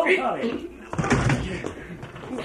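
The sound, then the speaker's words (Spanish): A ship's cabin door is forced open by breaking its bolt, with a heavy thud and a splintering crack about a second in, loud, while voices shout and murmur around it. “Hay que abrir la puerta rompiendo el cerrojo.”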